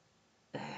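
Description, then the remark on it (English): After a brief near-silent moment, someone abruptly clears their throat, a single loud, rough burst that runs to the end. “Um, it's either yawning or having to clear my throat.”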